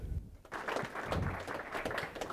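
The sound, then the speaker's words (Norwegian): A crowd breaks into warm applause, a dense wash of many hands clapping steadily for a couple of seconds, moderately loud, welcoming the technical chief of Moen Marin at a live event. “En varm applaus”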